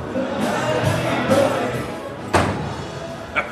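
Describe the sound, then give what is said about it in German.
A dense, lively crowd fills the Kuffler festival tent with steady overlapping chatter and hubbub, broken by a couple of sharp thuds near the end. “Hör mal, bei euch ist aber eine dolle Stimmung im Kuffler.”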